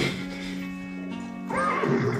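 A horse whinnies, a steady tonal call that breaks into a shaky, quavering neigh halfway through, fairly loud with no voices over it.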